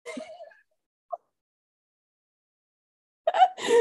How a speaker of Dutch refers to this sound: die stikt ongeveer in de eigen hoest.